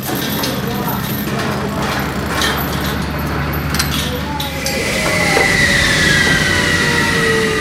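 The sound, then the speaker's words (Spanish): Heavy trucks, tractors and backhoes rumble steadily with a deep engine drone, demolishing and clearing rubble after an earthquake in Ixtaltepec, Oaxaca, Mexico; partway through a high mechanical whine rises over the noise of the busy outdoor work site. “Ixtaltepec parecía el escenario polvoriento de un teatro arruinado, en donde enormes y ruidosos camiones, tractores y retroexcavadoras escenificaban el gran derribo, sacando de allí los restos de miles de vidas, reducidas a cascotes.”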